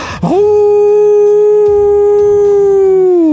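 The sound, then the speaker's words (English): A person's voice imitates a mastiff howling at the moon: one long, loud, steady howl that rises sharply at the start and holds for about three seconds, with no talking. “Uh, it is the mastiff's turn, and the mastiff is going to howl at the moon.”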